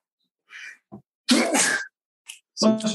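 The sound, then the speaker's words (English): A loud sneeze: a quick breathy intake, then an explosive burst, followed by a short sniff and another voiced, throaty exhale. No one speaks. “Bless you.”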